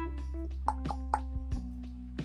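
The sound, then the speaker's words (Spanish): A series of dull, hollow knocks on a door by someone arriving at about 11 o'clock at night, about six taps in uneven groups, over a constant low electrical hum with no talking. “Pasaron dos horas, güey, como a las 11 van y tocan. Hace el sonido de puerta.”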